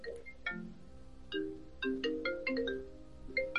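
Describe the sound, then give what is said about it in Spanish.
A phone ringtone plays a bright, chiming electronic melody of quick repeated notes, clear, with no voices over it. “Eh, otro que suena llamadas.”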